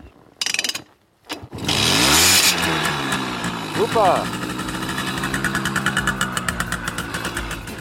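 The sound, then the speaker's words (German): A small two-stroke Simson moped engine kicks into life with a quick rising rev, then settles into a steady, rapidly puttering idle as the rider is about to set off on a trip. A voice says a word briefly near the start. “Ich dachte, äh, du fährst jetzt.”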